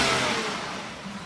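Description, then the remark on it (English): A car, just filled up with petrol at a petrol station, revs with a broad roar and pulls away, the sound easing slightly as it drives off over about a second, with no voices. “They put the petrol in the car, and off they went.”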